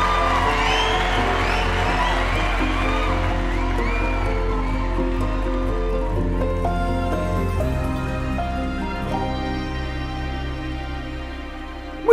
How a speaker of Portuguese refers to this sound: palmas